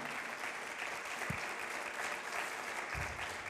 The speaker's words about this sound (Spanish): Dale un fuerte aplauso al Señor, dale.